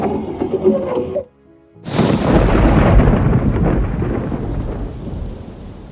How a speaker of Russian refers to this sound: Сильный дождь.